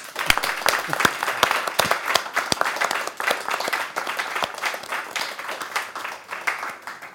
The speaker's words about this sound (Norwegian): Og så tusen takk til dere for gode spørsmål. Da kan vi gi en applaus for, for alle.